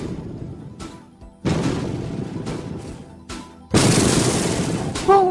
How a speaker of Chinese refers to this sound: 有一天，动物国忽然传来一阵爆破声。